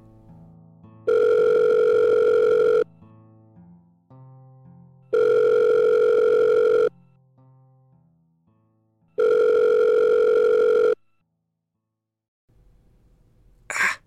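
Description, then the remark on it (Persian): A mobile phone call's ringback tone sounds three times, each steady buzzing ring lasting under two seconds with pauses between, over a faint low background; the call goes unanswered and the ringing stops. “گوشیمو از تو جیبم در آوردم و زنگ زدم به موری”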